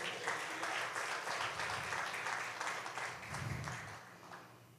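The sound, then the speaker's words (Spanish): An audience breaks into sustained applause for the Lord, many hands clapping together in a dense, steady wash for several seconds, with faint voices mixed in. “¿Cuánto le dan un aplauso al Señor por eso?”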